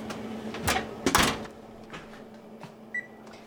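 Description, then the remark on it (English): An oven door clunks open and thuds shut with a brief metallic rattle as noodle kugel is put in to bake at 350 for about 20 minutes, moderately loud, followed by a single short electronic beep over a low steady hum. “So we're going to put these in the oven, 350, about 20 minutes.”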